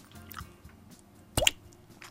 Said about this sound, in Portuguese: É giro, não é? Oh. Parece uma gota de água aqui num balde.